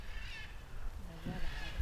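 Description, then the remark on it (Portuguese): Harsh, raspy squawks of two blue-and-yellow macaws flying overhead in a park, one near the start and another at the end, with faint low murmuring and outdoor background noise in between. “Arara azuis com os peitos amarelos passaram ali voando agora.”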